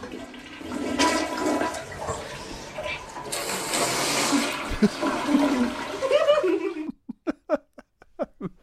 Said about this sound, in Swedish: Här, är det då, här ska hon gissa hur en toa låter, så först spolar de och sen så försöker hon liksom låta som hon tror att det låter.